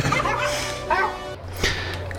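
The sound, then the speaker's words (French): A large German shepherd dog named Zippo gives a few short barks and yips spaced across a couple of seconds, over a steady low background hum. “je vous demande de faire un maximum de bruit pour Zippo, le berger allemand qui parle.”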